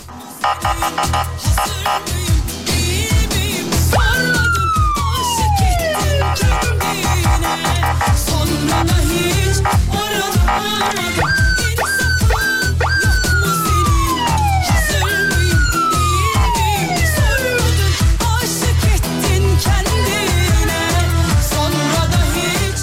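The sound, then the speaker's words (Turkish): A police siren wails loudly in repeated falling sweeps, set against a dense, thumping rhythmic backdrop that carries on throughout. No one speaks. “siren miren bir şekilde açar mısınız demiş efendim.”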